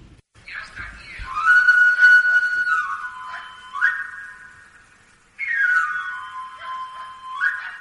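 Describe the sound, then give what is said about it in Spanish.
A knife sharpener's pan-pipe whistle plays two shrill, sliding runs of notes, with a short gap between them. It sounds fairly loud, with no voices. “Eh, bueno, eh, vamos a, escuchar ahora el, corte de, del afilador, a ver lo que, lo que comenta la gente en la calle.”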